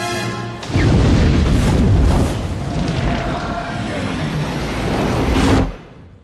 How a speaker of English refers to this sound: And as we have already been told throughout the uh, runtime of the movie, this Klear, this uh, solid fuel, this solid hydrogen fuel, is highly explosive. And as soon as it hits the fire, we get a massive explosion.